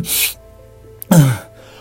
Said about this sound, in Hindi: अच्छा bless you